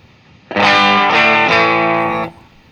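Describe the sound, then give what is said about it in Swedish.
An electric guitar played through an overdrive effect with the gain turned down, giving a lightly crunchy tone. A chord rings loud and sustained, with a second strum partway through, and no talking. “Hur, hur cleanar den upp då om du drar ner lite?”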